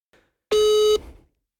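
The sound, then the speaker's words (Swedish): A single telephone ringback tone while placing a call: one steady, slightly buzzy electronic tone lasting about half a second, loud, then fading quickly into silence with no voices. “Vem, vem ringer du?”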